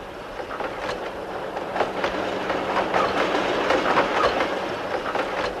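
A train rolls steadily along, its wheels clacking over rail joints in a repeating rhythm beneath a broad rumbling wash of noise, without any voices.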